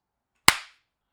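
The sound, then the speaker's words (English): A single loud, sharp slap of an open hand on the cheek, as imagined on Mark Zuckerberg: one crisp crack that fades quickly into silence, with no voices around it. “If I just if I slapped him with like an open fist right on the cheek, I think it would sound like this.”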